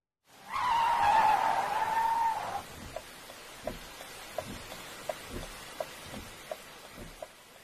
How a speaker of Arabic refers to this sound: توقفت السيارة الفضية التي كانت تسير مسرعة تحت المطر قبل قليل في وسط الطريق